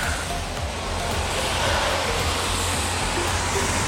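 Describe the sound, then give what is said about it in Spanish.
Heavy rain pours down ever harder in a dense, steady, loud hiss that fills the whole space, with no pauses or voices over the constant roar. “Y se dejó venir el agua más, más fuerte.”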